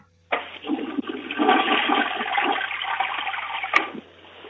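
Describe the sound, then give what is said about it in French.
A toilet flushes, a sudden rushing gush of water that churns steadily for several seconds before cutting off abruptly, leaving a low hum. No one speaks. “Flush à ta toilette, voir.”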